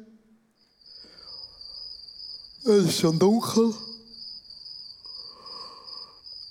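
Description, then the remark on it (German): Crickets chirp at dusk in a steady, high-pitched drone that runs unbroken from start to finish, with a person speaking briefly over them partway through and soft background noise underneath. “Aber plötzlich wird es ein bisschen dämmerig und man hört so die ersten Grillen zwitschern.”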